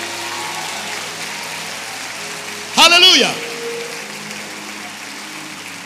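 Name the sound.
audience applauding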